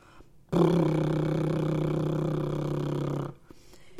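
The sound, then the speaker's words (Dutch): A single sustained lip trill done as a voice exercise, a buzzing, fluttering brrr held steadily for nearly three seconds on a low pitch, fairly loud, with no talking. “Als jij nu geen bubbelset bij de hand hebt, dan mag je gaan liptrillen. En dat is dit.”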